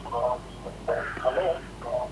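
A caller's radio blares loudly in the background of a telephone line during a listener call-in, its voices coming through tinny and band-limited in uneven bursts with no clear foreground talker.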